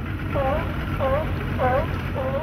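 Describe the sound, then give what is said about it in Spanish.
A motorboat's steady engine drone and water rush run continuously as it cruises the calm waters of the Sea of Cortez near La Paz, Baja California Sur, on a 40-minute ride toward the Espíritu Santo islands, with four brief, evenly spaced tonal calls rising above the rumble. “Para llegar a él es necesario tomar una lancha y disfrutar durante 40 minutos de un ecosistema desértico rodeado de mar.”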